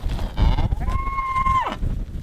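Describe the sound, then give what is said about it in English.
A single drawn-out moo from one of dozens of big black cows on a ranch, lining up near an electric fence to cross into a new pasture, holding a steady pitch for nearly a second before sliding down and cutting off, over a low outdoor rumble. “The grasses are green out here from a recent thunderstorm, and dozens of big, black cows are lining up near an electric fence.”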